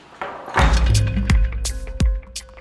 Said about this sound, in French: Voilà, moi c'est ce frigo. Ici. Avec la vraie porte de chambre froide, ouais.